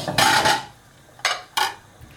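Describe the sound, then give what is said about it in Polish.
A metal lid is set onto a cooking pot of water being brought to the boil for lazy dumplings, with a ringing clatter, followed by two quick, lighter clinks as it settles. No one is talking. “Przykryję, wtedy szybciej się woda zagotuje.”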